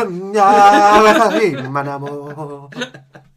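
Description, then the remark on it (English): A lone voice belts out a short, improvised jingle for an African Cup of Nations update, a loud wordless melodic flourish that slides down into lower sustained notes before trailing off in a few brief vocal bursts. “That's the official jingle for the African Cup of Nations update.”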